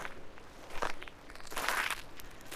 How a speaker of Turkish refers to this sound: Kulakların adım seslerinde ve adım seslerine uyarak ilerle.